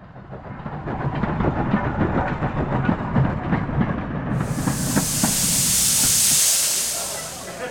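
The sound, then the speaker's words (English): A train bound for Chester rumbles along with a steady clatter of wheels on the rails, then a loud hiss of steam bursts out over the rolling noise toward the end. “Grab your coat and let's get out of this club, because we're catching the first train to Chester to find out.”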